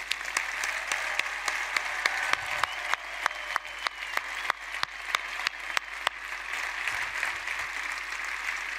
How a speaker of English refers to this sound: First of all, let's clap up for the over 50 crowd that's sitting and respect our elders.